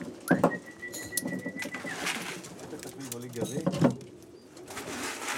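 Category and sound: bird, pigeons cooing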